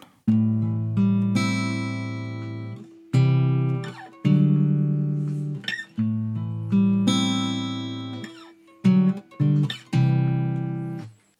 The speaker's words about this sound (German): Es begann damit, dass ich auf dem Sofa gesessen habe und mit der Gitarre rumgeklimpert. Dabei kam so ein kleiner, eine kleine Melodie zustande, die klingt folgendermaßen.